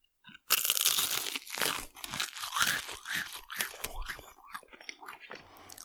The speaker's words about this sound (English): Um, so I'm gonna just for the microphone, I'm gonna open lip, and we're just gonna crunch this thing.